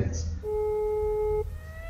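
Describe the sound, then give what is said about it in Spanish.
A steady, piercing siren tone at the start of a song holds at one pitch for about a second, fairly loud over a low rumbling background, then cuts off and fainter tones linger. “Vamos a escuchar esta canción que empieza, eh, podemos decir, perturbadoramente con un ruido de sirenas.”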